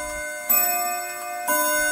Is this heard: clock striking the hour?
yes